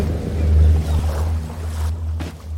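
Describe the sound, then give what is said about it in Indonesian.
A boat's low, steady engine drone rumbles over the wash of open sea, continuous, with breezy water noise easing off toward the end. “wow, ada kapal.”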